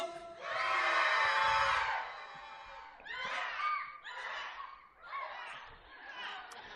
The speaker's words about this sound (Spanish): Y el último es que cuando yo levante mis manos de esta forma, vamos a dar un grito de terror. A ver, chavos, un grito. Y cuando yo baje las manos, ese grito se acabó.